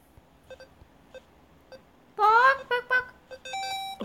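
Electronic game beeps, a few faint quick blips at first, then a loud warbling burst followed by short sharp pecking chirps and a sustained tone, like a chicken pecking.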